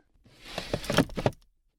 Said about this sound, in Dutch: Deurtje open? Ik hoef helemaal geen geluidseffecten eronder te zetten, joh.